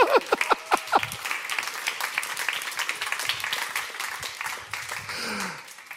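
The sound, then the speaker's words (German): A crowd breaks into applause, a few sharp individual claps at first swelling into dense, sustained clapping that carries on steadily at moderate volume throughout. “Applaus wert, oder?”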